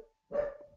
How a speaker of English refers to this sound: Oh, and somebody's at the door. I don't know if you can hear my dog barking.